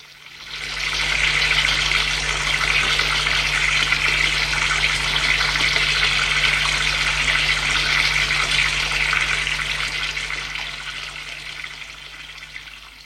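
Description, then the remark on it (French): Tap water runs steadily for about twelve seconds while dishes are washed beneath it after dinner, an even hiss that swells in at the start and tapers off at the end. “Puis, Denis fait la vaisselle et Pascal l'essuie.”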